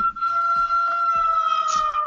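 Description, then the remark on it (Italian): A steady, high siren tone holds at a constant pitch with bright overtones, fairly loud and continuous, with low rumbling bursts pulsing underneath about every half second. “Sirena, sirena.”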